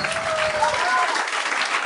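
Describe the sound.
An audience claps steadily throughout, a dense, continuous patter of many hands at an even loudness, with a faint murmur of voices mixed in during the first half.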